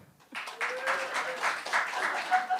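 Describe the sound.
A crowd bursts into steady applause after a brief quiet moment, the dense clapping holding at an even loudness throughout, with a faint voice or cheer rising over it.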